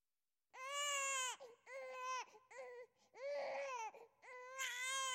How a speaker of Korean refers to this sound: 아무것도 할 수 없는 갓난아이에게 정말 필요한 것은 엄마를 부르는 응애 같은 울음소리입니다.